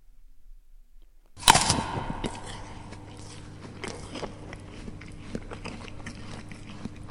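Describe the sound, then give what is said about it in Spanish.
A sharp, crisp crunch as teeth bite into an apple, followed by several seconds of wet chewing with small crackling bursts and a faint steady hum underneath. “Cada vez que uno de nosotros muerde una manzana, se escucha el eco de esa herida primordial de la tierra.”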